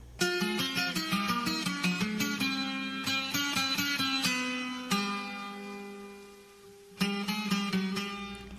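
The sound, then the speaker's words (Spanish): A Puerto Rican song plays on its own, with no voices: bright, rhythmic plucked chords at a steady pace, a held note that fades mid-way, then the strumming returns clearly. “Esta música que escuchamos de fondo se llama …”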